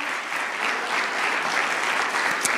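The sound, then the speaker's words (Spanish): A church audience claps steadily, giving applause to the Lord during a service, a dense, continuous wash of applause from many hands that holds at an even, fairly loud level throughout, with no talking over it. “Alguien de un fuerte aplauso al Señor.”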